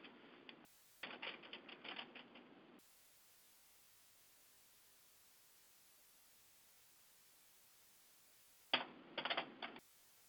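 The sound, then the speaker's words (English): Rapid keyboard typing in short bursts as someone types a Google search, a flurry at the start, then a long stretch of faint hiss before one more quick burst of clicking keys near the end. No one speaks. “I don't never like typing God without making a capital G.”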